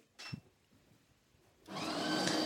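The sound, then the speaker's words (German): An espresso machine makes coffee: a short clack, a quiet pause, then a loud, steady mechanical whirring hum that starts abruptly and keeps going, with a slightly whiny tone running through it. “Ich mache mal einen Espresso für uns.”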